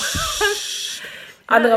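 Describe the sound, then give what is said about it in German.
A voice imitates an aerosol deodorant being sprayed in a bathroom with a steady, breathy hiss lasting about a second, with a brief laugh underneath, followed by a short bit of speech. “Sie kommt rein, packt ihre Sachen hin und das erste, was du hörst, ist im Badezimmer psch, so Deo.”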